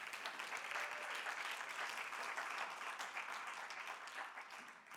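Sustained audience applause, many hands clapping in a dense, steady roar that holds at full loudness for several seconds before easing slightly at the very end. No voices stand out.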